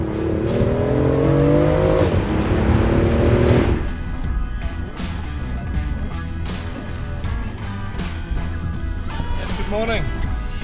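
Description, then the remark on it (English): A hybrid sports car's petrol engine is switched on with the roof down on a sunny day, roaring as its pitch climbs steadily for several seconds as it revs hard, then drops back to a lower, rumbling idle with occasional mechanical clunks. “I'm gonna turn the petrol engine on.”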